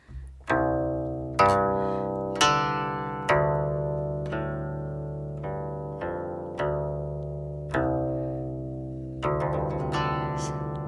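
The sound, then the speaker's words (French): Open strings of a guqin, an ancient Chinese stringed instrument, are plucked one after another to give the 'sound of earth': about eight deep, resonant notes, each ringing out and slowly fading before the next, played alone at a steady, unhurried pace. “Bien sûr, il y a le son de la terre.”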